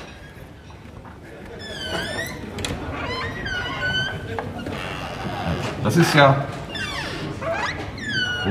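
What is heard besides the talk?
squeaking door opening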